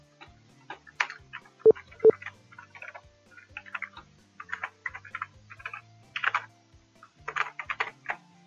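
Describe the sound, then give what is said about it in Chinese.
Irregular bursts of typing on a computer keyboard, crisp clicking keystrokes in quick runs with short pauses, including two sharper, louder taps early on; no one speaks. “像我们这种在打打字的时候，我们是不是需要把麦克风关掉？”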